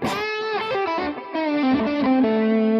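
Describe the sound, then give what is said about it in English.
A distorted electric guitar plays a quick melodic minor pentatonic solo line over an A chord, notes stepping and bending downward through a bluesy scale, loud with sustained final tones and no talking. “So now if you think about it, if I was to play an A chord, if I soloed in minor pentatonic, it would sound like this.”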